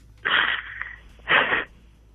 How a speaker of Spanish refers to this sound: Mira, no llores. Eso pasa en todos lados.